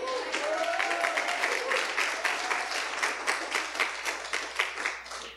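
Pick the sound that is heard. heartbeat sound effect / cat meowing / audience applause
audience applause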